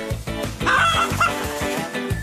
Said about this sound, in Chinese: 你听到了没有，咕咕鸡？你想不想恭喜一下妈咪呀？